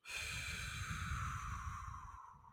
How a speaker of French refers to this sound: Donc une double inspiration par le nez. Et on va faire une longue expiration par la bouche qui fait à peu près trois fois l'expiration.